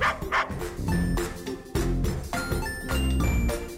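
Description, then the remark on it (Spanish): A dog barks repeatedly and loudly, a series of sharp, rough barks in an uneven rhythm, with some faint tonal background sounds beneath them. “Bueno, en realidad ya lo hacen. Lo que pasa es que no usan nuestro idioma.”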